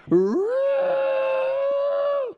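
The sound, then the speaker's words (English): A person imitates an elk's bugle with a single loud, sustained vocal cry that swoops upward in pitch, then holds a high, steady, slightly nasal tone for about two seconds before cutting off. “they get each other's attention by bugling, which is like the least masculine sound for such a large creature”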